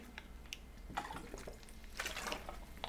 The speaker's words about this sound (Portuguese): Vou tomar mais uma água aqui.